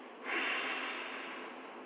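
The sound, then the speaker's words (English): A deep breath drawn in and then pushed out forcefully as one loud, airy rush of breath lasting over a second, with no talking. “you simply start breathing you just breathe in. And when you do that, they're going to look at it, oh, my God, what's wrong with it?”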